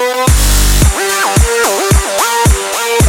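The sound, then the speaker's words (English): An upbeat theme song plays loudly with no voices: a punchy beat hits about twice a second under bright, bending synth or brass notes that swoop up and down in a repeating riff. “It's a good song. I mean, listen to this.”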